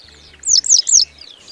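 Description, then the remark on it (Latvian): A wagtail calls with three sharp, high chirps in quick succession, clear, followed by a fainter trailing note. No voices. “Lūd, nepareizi. Cielava. Jā.”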